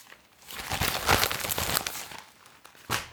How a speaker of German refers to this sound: Es wurde geraschelt.